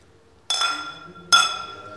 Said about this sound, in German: Sieht schon mal richtig super aus, dann lass uns mal anstoßen.